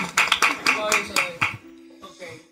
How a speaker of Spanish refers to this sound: Lo hizo, lo hizo, lo hizo. Lo hizo. Un aplauso, señora, que lo hizo, lo hizo.